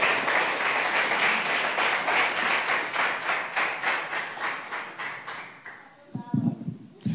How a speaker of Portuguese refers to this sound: aplaudir o Senhor Jesus bem forte.